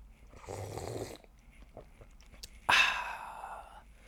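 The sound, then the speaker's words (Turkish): Someone takes a loud slurping sip of hot tea, then after a short pause lets out a breathy, satisfied exhale. No one speaks. “Bir çayımdan içiyorum şu anda hepinizin duyacağı üzere.”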